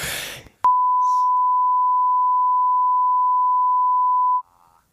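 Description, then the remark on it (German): A brief burst of noisy sound gives way to a single steady, pure beep tone held loudly for nearly four seconds before cutting off abruptly, a long censor bleep placed over a spoken word. “Ich mach also Piepser, jedes mal, wenn ich, Piepser drüber.”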